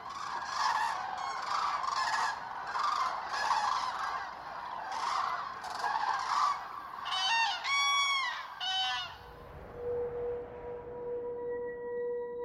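A flock of cranes from Norway and Finland calls repeatedly at the end of the day as they gather on the islands of a lake for the night, loud, overlapping calls in a busy chorus that thins toward the end, leaving faint calls and a steady low tone behind.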